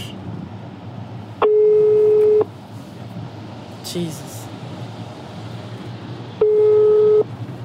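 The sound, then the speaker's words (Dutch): An outgoing phone call placed by asking Google Assistant in a car, ringback tone: two steady one-second tones, about five seconds apart, over a hissy background with a brief murmur of voice in between. “Hey Google, bel alsjeblieft”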